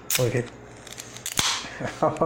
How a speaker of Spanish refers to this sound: El abrir una cerveza, voy a abrir una, que, se escuche.